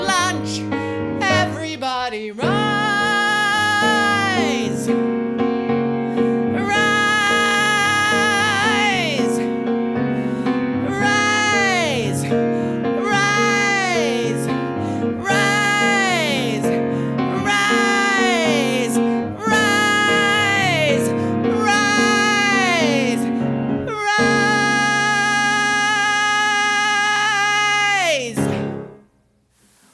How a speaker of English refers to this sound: that was just so beautiful. I love that song. Oh, thank you. It's uh, it's very expressive. I've always enjoyed it.